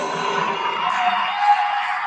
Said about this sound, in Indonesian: Tepuk tangan dan berikan takbir yang hebat buat Coach Steven Indra Wibowo.